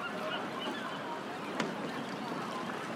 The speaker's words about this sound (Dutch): Je loopt verder. Meeuwen krijzen. Om je heen is de bedrijvigheid van je welste. Een vreemde combinatie van de rust van de wijde zee en de drukte van het havenleven.